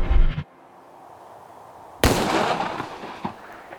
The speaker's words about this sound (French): La déflagration retentit dans l'air, comme un coup de tonnerre dans le silence du matin.